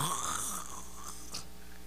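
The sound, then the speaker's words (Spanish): A man's voice imitates a snore, one drawn-out, rasping, throaty breath lasting a couple of seconds, moderately loud. “Y cuando estaba roncando,”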